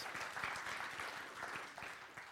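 A church audience claps steadily, a dense, continuous patter of many hands at an even loudness throughout, with no voices standing out above it.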